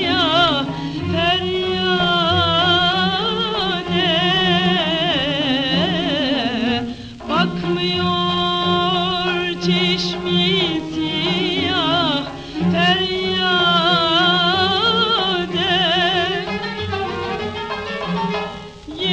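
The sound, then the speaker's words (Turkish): A woman sings a Turkish classical song in the Nihavend mode, her ornamented, wavering melody held over steady instrumental accompaniment, loud throughout with only a brief dip midway. “Şarkı Hacı Arif Bey'in Nihaven şarkısı. Bakmıyor çeşmesi ya.”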